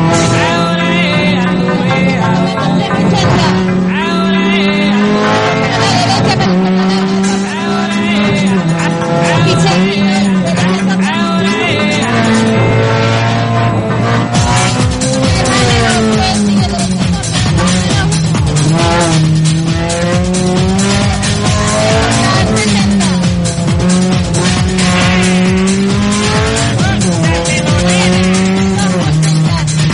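A racing car engine roars and revs continuously for the whole stretch, its pitch sweeping up and down through gear changes, with sharp tire squeals cutting in, loud throughout.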